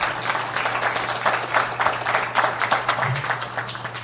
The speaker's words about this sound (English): But can I have a round of applause already for their journeys?